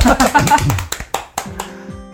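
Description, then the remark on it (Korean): A brief burst of voices gives way to a handful of separate, sharp hand claps at an uneven pace, sparse rather than a full round of applause, given as thanks to the day's guest, ending in a faint tonal hum. “우리 박수로 한번 감사의 인사 드리겠습니다.”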